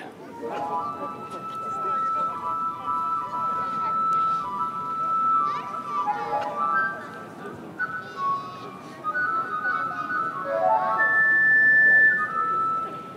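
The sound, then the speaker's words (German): A flute, played by the piper in a telling of the Pied Piper tale as he leads the rats out of town, plays a lilting melody of clear, high notes that step up and down in a steady flowing line, with a soft murmur of background noise and voices underneath throughout. “Die Leute werden einig und der Pfeifer greift zur Flöte.”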